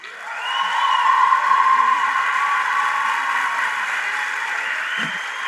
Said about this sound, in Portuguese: Essa aí, sendo aplaudida de pé por um auditório lotado, é a Bel Puan, poeta, artista musical, atriz, formada em História na Universidade Federal de Pernambuco. Essa apresentação foi em 2018 na Flip, a Festa Literária de Paraty